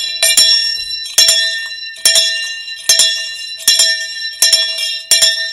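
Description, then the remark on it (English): A bell rings loudly and repeatedly in a steady rhythm, about seven bright metallic strikes with ringing overtones that decay briefly between hits, rung in celebration of Buhari. No voices are present. “is, is, sound of bell you heard?”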